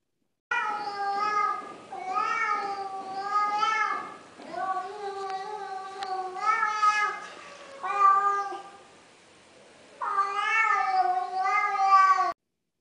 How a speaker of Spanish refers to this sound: Fíjate, ya se reunieron seis gatos allá abajo.